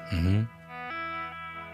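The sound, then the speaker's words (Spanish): A single guitar note rings out with a wah-like sweep that opens and closes in the first half-second, then sustains steadily and fades a little, slightly distorted. “Pues que en realidad, pues hacer un efecto tipo wah.”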